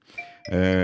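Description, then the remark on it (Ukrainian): A mobile phone rings during the programme Just Train from Ukraine: a soft electronic tone gives way to a loud, sustained, buzzy ringtone with rich harmonics that fills the short clip. “Це мій телефон.”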